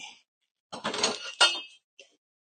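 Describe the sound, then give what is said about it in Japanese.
A metal cooking pot clatters in a short burst of handling while food is being made, with a sharp bright clank near the end and a small tap after a pause. Nobody speaks. “えー、っと、鍋。”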